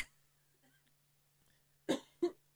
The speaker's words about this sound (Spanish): Ay, disculpen, voy a toser